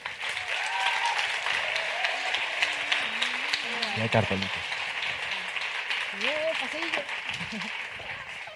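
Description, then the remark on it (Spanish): Sustained audience applause welcoming Leticia Dolera, Manuel Burque, Aisha Villagrán and Celia Freijeiro, creators and cast of the Movistar Plus series Vida Perfecta, onto a stage: a dense wash of many hands clapping at steady loudness throughout, with cheering voices and a few whoops rising and falling over it. “Así que recibamos en este escenario con un fuerte aplauso a Leticia Dolera, Manuel Burque, Aisha Villagrán y Celia Freijeiro.”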